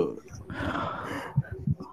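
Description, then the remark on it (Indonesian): A long, deep breath drawn in, a rushing airy inhale lasting nearly a second, followed by a couple of soft low thumps. “nih gue ditarik napas nih.”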